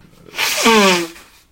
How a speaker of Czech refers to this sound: Ty furt smrkáš